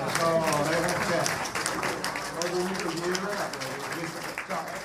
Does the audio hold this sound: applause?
yes